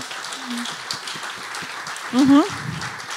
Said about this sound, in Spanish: Si le vas a dar un aplauso.